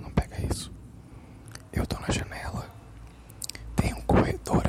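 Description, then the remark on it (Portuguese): Muffled voices of a neighbor woman arguing with another woman come through the neighbor's window across the corridor, indistinct, rising and falling in uneven bursts with short pauses between them. “Parece que ela está discutindo agora com uma mulher.”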